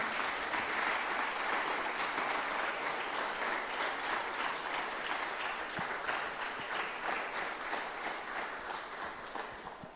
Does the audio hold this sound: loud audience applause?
yes